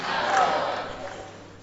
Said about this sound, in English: Yes, clap. Because even to start one center, it has not been easy for you.